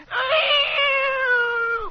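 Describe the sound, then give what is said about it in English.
A person imitates a coyote howl: one drawn-out, wavering vocal wail held at a fairly high, steady pitch for nearly two seconds, then sliding down as it ends, with no other sounds. “Don't I howl like them?”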